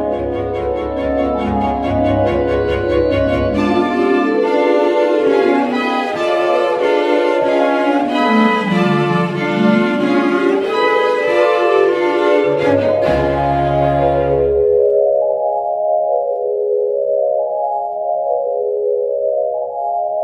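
Film score music from a Paul Thomas Anderson film plays loud and continuous, with sustained, wavering tones that slide up and down in pitch over a low drone, thinning to a single hovering, warbling line near the end.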